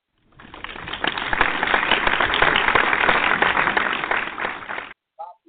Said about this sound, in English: Nigga, you deserve a round of applause.